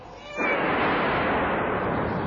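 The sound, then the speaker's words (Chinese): A cat named Hamish, stuck up a tree in the dark, lets out one long, drawn-out meow that starts abruptly and holds loud and steady, with a harsh, wailing tone and no talking over it. “他叫了又叫，可是没有人听到。”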